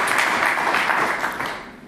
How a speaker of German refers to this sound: Ich denke, wir sind live. Ist, denke ich, ein Applaus auch wert, auch in dieser Form, wenn wir das aufnehmen, da so offen drüber zu sprechen.